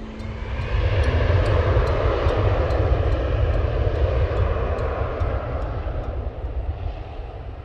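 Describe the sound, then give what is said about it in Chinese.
A steady, heavy roar of an airplane engine, deep and rumbling with a broad hiss over it, holding an even loudness throughout without any voices. “就是当你上了飞机以后，你才觉得彻底的安全，这就是整个的过程。”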